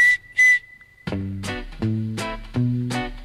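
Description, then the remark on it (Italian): A steady, high-pitched whistle holds a single note for about a second with two breathy bursts, then gives way to bouncy, rhythmic musical notes. “Buongiorno, dottore, come vede sono affetto da questo grave difetto, questo fischio non mi abbandona e le donne ridono di me.”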